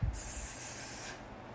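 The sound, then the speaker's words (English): A voice imitates a snake's hiss: one steady, breathy hiss lasting about a second, fairly loud, starting after a brief low thump and fading out cleanly with no talking. “You're listening more to the enemy hissing”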